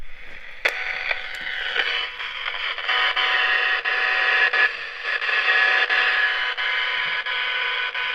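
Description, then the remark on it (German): Steady hiss and crackle of a red-and-beige radio receiver with medium and long wave picking up interference, probably from a mobile phone, with buzzing tones and occasional sharp clicks and pops, fairly loud and continuous with no voices. “Dieser Radioempfänger, der hat äh, äh, Mittelwelle und Langwelle. Und das sind jetzt Störgeräusche, vermutlich von meinem Handy.”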